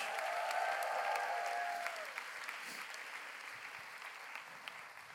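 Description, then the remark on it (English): A large audience at Heart of God Church applauds steadily throughout, a dense wash of clapping, with a sustained musical tone ringing over the first two seconds before fading away. “Give them a big hand clap.”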